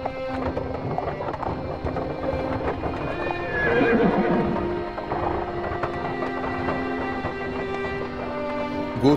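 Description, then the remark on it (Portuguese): A horse-drawn carriage rolls steadily along the streets of the upscale Teverant district of the city of Fronec, with hooves clopping and wheels rattling, and a horse whinnies loudly partway through before the clatter continues. “Miller se encontrava sentada ao lado da janela da carruagem observando as belíssimas ruas do bairro nobre de Teverant, um dos quatro distritos da grande cidade, chamada de Fronec, onde apenas a mais alta sociedade podia comparecer”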